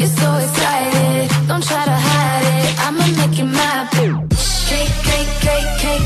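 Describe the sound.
An upbeat R&B remix plays loudly, with a sung vocal over a steady beat and sustained bass. Midway the mix drops with a downward sweep, then returns with a fuller, denser beat.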